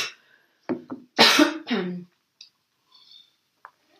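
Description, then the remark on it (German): A person with a slight cold coughs several times, a few short hacking bursts followed by a longer, rougher cough, then quiet with faint small noises. “Und Entschuldigung, jetzt muss ich mal kurz husten.”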